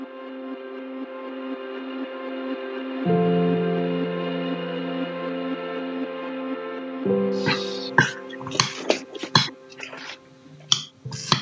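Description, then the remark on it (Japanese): A steady electronic tone plays for several seconds, then gives way to sharp clicks and scrapes of a spoon against a bowl as someone eats oatmeal at breakfast, irregular and fairly loud. “オートミールを食べる音が聞こえる”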